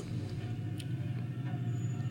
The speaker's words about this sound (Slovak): A to je vlastne druhé auto, že keď to stopneš, lebo to je ako, že kto z koho, hej?